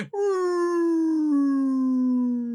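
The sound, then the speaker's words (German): A voice imitates the roar of a low-flying airplane, recalling a September 11 video of a firefighter working on the street, with one steady, loud droning tone that lasts a few seconds and slowly drifts lower in pitch. “dass da gerade extrem nah extreme Flugzeuggeräusche sind”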